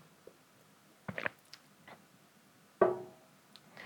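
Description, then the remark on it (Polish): Someone drinks water: a few quiet, wet gulps and swallows, with two stronger bursts separated by soft clicks and faint ticks, and no talking. “A teraz mogę się napić wody, tak, yy, żeby zyskać.”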